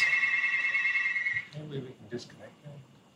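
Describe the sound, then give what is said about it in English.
A telephone rings with a steady, high electronic trill for about a second and a half, then cuts off as a voice begins talking. “I'm, I'm trying to get to that right now, but uh, it's very annoying with the phone keep ringing.”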